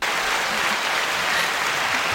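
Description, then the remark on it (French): A short burst of steady applause for Nikos Aliagas, many hands clapping densely and evenly at a fairly loud level, with no voices standing out. “Petit applaudissement pour euh, Nikos Aliagas.”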